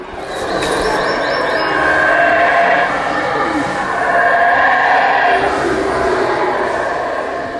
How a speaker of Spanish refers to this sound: Por ejemplo, cuando el mono aullador se escucha enojado o como si fuera un monstruo, realmente está llamando a su amada o triste de que no ha llovido. Y si no me lo creen, escuchen esto.